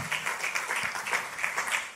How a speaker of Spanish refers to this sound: Porque no un aplauso fuerte al Señor? Porque eso hace un pueblo bendecido, hermano.